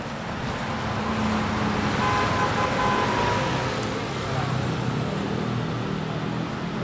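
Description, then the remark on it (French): Busy traffic on Boulevard Haussmann in Paris: a steady, dense roar of passing cars and engines, with a continuous low rumble and a faint murmur of voices blended into the din. “On a été télétransporté boulevard Haussmann à Paris.”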